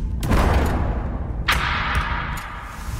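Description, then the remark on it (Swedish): Heavy, booming thuds strike against a door amid a dense rumbling background, with a sharp impact midway and a few lighter knocks trailing after. “De som rör sig i skuggorna. Som bankar på din dörr.”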